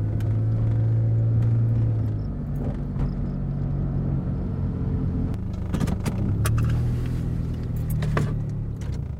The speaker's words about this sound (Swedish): Runt 18.05 svängde jag in på min uppfart.